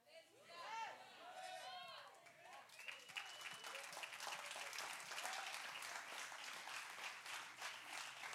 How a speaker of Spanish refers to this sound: Yo sé que los aplausos de los hombres no son muy fuertes, pero es ok.